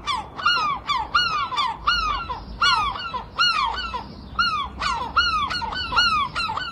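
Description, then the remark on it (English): Seagulls squawk loudly and repeatedly outside a bedroom window in the seaside town of Folkestone, their harsh overlapping calls coming in rapid bursts with scarcely a pause, clamorous over faint background noise. “has shared a video of seagulls outside her bedroom window as a warning to Londoners who are thinking of moving to the seaside town.”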